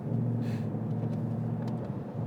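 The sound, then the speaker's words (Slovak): A Mustang's 8-cylinder V8 engine rumbles steadily in its loud track exhaust mode, a deep, throaty drone sustained throughout without revving up or fading, with no voices present. “A ešte väčšia nádhera je ísť okolo nehody a podradiť pri nej pri, za zvuku tohoto uh, eh, 8 valca v uh, mode výfuku závod na trať.”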